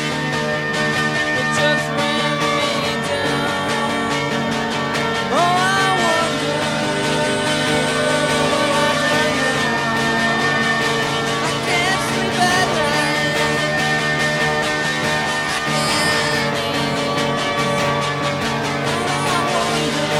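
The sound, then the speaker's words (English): A continuous stretch of a short song, about one minute twenty seconds long, carried by sustained, sliding string lines like a violin over a steady harmonic backing, with no drums and no voices, at a moderate, even level throughout. “as good a one minute twenty second song as you're going to hear, with some with some violin, some pretty violin in this one too, yeah, and no drums.”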